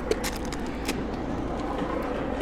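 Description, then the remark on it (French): A steady, low rumble of about fifteen CRS police trucks idling or rolling behind roughly 200 riot police, constant and fairly loud throughout, with a few faint clicks and clatters on top. “Il y a à peu près, euh, je crois, 200 CRS euh, là, avec une quinzaine de camions derrière.”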